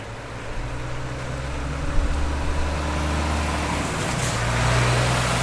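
Blue lorries with white lettering drive in and out of the PostNord terminal at Alfaset in Oslo, rumbling steadily with a low engine drone, a continuous heavy-vehicle hum that swells slightly toward the end. No voices.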